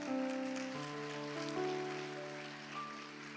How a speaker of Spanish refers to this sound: La iglesia le da palmas fuertes al Señor.